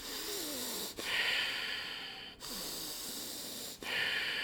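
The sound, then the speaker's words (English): A voice imitates a teenager's heavy, huffing breathing while sitting on the couch watching TV: loud, noisy breaths in about four long, rough cycles with brief pauses between them and no words. “like huffing and puffing. And I would just be like, we were watching the TV, and I'm like, why are you breathing so loud?”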